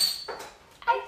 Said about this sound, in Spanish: Fue el sonido de abrir una cerveza.